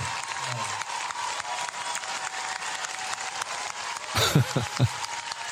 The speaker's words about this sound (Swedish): Men det är så här lagom så här lojt klappande.